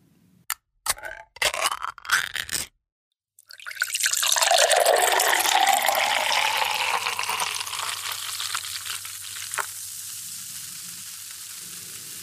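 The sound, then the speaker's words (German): A few sharp metallic clicks and a crack as a soda can is opened, then a brief pause before a long, fizzing pour of liquid that gradually settles into a soft hiss. “Die Wahrscheinlichkeit, die dürfte sehr, sehr hoch sein, dass ihr euch eine rote Cola-Dose vorgestellt habt mit Cola drin”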